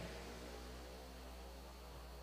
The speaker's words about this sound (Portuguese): deixar a moto passar.